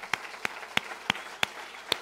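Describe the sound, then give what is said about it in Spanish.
Six sharp, distinct hand claps in a steady rhythm, each crisp and bright, with a low murmur of background noise between them and no voices, given by a church audience applauding its new site in La Ceja. “Un aplauso, Señor.”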